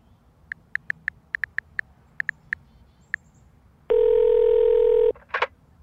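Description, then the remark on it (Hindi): About a dozen short, crisp mobile phone keypad beeps tapped out at an uneven pace as the number of a Malabar Gold showroom, found by Google search, is dialed at half past eight at night, followed by a loud, steady electronic tone lasting about a second. “mobile पे Google search करती है मालाबार गोल्ड शोरूम का नंबर”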